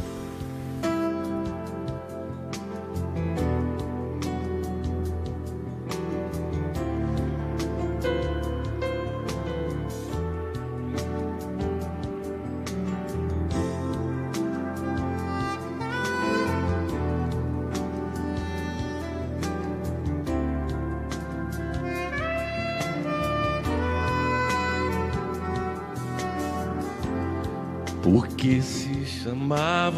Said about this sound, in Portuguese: Bom, vamos de música então, né? Então vamos.